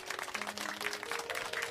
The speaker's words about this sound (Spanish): Un aplauso.